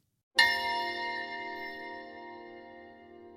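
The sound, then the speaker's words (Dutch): A single bright metallic chime from a video game trailer rings out after a brief silence, its shimmering tones sustaining and slowly fading over a few seconds with a low hum underneath. “kwam uit eh, de trailer van de game The Legend of Zelda Tears of the Kingdom”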